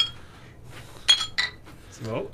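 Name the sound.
clinking beer glasses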